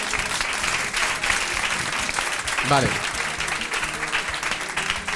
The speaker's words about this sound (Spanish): Gracias a los dos. Eh. Un aplauso, un aplauso para ellos.